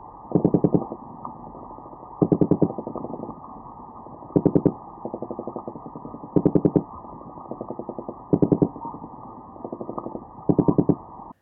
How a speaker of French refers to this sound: le corbe, qui est un poisson qu'on trouve beaucoup en Méditerranée, euh, il fait des bruits qui sont liés à la reproduction, ce sont les mâles qui font des bruits, et on peut l'écouter, c'est un son qui ressemble un peu à une mitraillette.